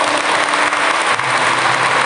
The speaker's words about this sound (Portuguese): Então aplauda o Espírito Santo bem forte agora.